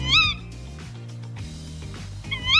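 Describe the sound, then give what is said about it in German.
A tawny owl gives two shrill, rising-and-falling calls at night, one at the start and one at the end, over a low, steady background hum with no talking. “Einmal sicher keine Hyäne, wohl eher ein Waldkauz, sagen die meisten Radio 1-Hörer”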